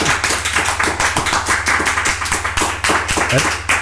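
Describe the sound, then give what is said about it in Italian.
Sustained final audience applause at the end of a show, a dense crackle of many hands clapping at once, loud and steady throughout with a low hum underneath. “Chiediamo al pubblico intanto un applauso finale.”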